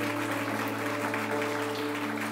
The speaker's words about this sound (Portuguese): Dê uma salva de palmas para o Senhor se você crê nisso.